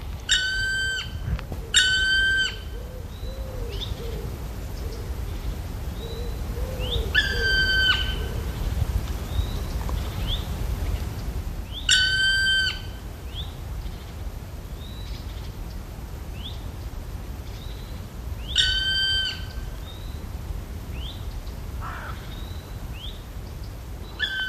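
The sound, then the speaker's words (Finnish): Two birds call back and forth near a cabin at almost 9 p.m., each giving short bursts of loud, harsh, ringing notes every few seconds, with fainter chirps scattered between over a low outdoor rumble. “Ja näin ne huutaa ihan mökin läheisyydessä.”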